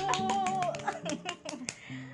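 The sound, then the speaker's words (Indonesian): A quick burst of hand clapping, about nine sharp claps in a fast, slightly uneven rhythm, close and moderately loud, with excited voices cheering along underneath. “Tepuk tangan dulu.”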